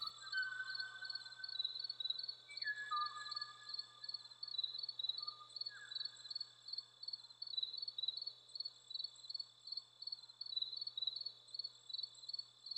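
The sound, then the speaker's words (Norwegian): The last Kauai ʻōʻō, perched on a branch and recorded in Hawaii in 1987, sings a few clear, flute-like whistled notes early on, fairly faint, over a constant high buzzing insect chorus that continues after the bird falls silent. “Sangopptaket av den siste kawaii å å er gjort av David Boynton for The Cornell Lab of Ornithology på Hawaii i 1987”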